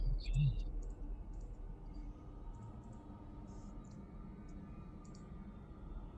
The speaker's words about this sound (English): Go ahead and roll me five challenge dice, please.